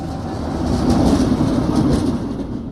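Freight wagons roll steadily along rails with a continuous low rumble and faint rhythmic clatter, holding a loud, even level throughout with no voices.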